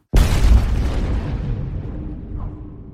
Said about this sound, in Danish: En eksplosion i solens overflade. Egentlig ved vi ikke, om det siger et brag lige på den her måde, for der er ingen mikrofoner i nærheden af solen.